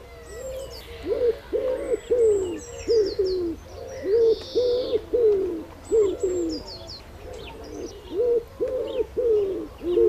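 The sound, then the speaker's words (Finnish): A wood pigeon's deep, hollow five-part cooing repeats in steady phrases, clear, while smaller birds chirp faintly in the background. “Mutta opetellaan sepelkyyhky. Se on siis viisiosainen huhuilu.”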